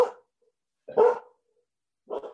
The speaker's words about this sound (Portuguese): vida real, gente, vida real, tem um cachorro e é isso aí.